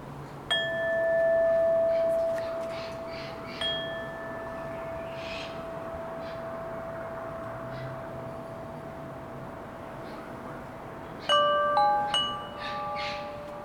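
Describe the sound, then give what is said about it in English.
Wind chimes ring out in the early evening in a few scattered strikes, each tone hanging with a long shimmering sustain over steady breeze in the trees and a distant motor hum, with a brief cluster of chimes near the end. “And I leave you with some sounds of the early evening the wind in the trees, the distant motors, and some wind chimes, maybe.”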